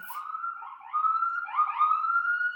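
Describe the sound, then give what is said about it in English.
Police sirens wail continuously on a New York street with overlapping rising and falling tones, fairly loud and steady throughout, as if several emergency vehicles pass by. No one speaks. “I don't know if you heard that, but those were sirens.”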